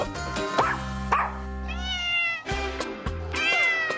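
A cat meows repeatedly and loudly, a series of drawn-out, wavering cries with a few short breaks, over a low steady hum in the background.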